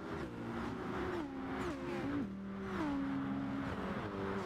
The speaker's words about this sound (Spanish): Esto es Gran Turismo Sport y lo que presentaron en Gamescom. No tiene ni música, solamente es el sonido de los motores de noche.